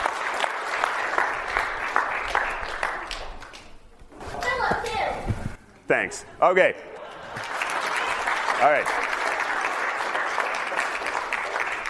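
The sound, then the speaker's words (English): An audience breaks into sustained applause, dense clapping that fades briefly while a voice speaks a few words, then the crowd claps again steadily and loudly. “You may now applaud.”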